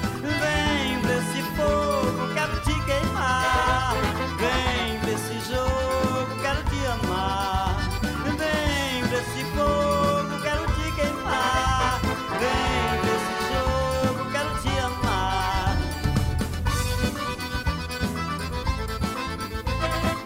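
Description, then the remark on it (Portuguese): Lively, upbeat forró with a bright brass arrangement over a driving rhythm section, playing continuously at a steady, loud level throughout. “Forró animado, um forró feito com um arranjo de metais extraordinário.”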